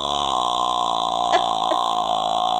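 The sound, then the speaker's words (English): A voice makes a long, steady, throaty croak, imitating the eerie rattle of the Grudge ghost. It holds at a fairly loud, even level for a couple of seconds, with a couple of brief catches near the end. “Is that the noise that the grudge makes? Yeah. No, that was good. That was a good impression.”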